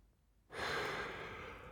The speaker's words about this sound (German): Ich gähne und ziehe mir die Filzdecke bis ans Kinn. So früh war ich schon lange nicht mehr wach.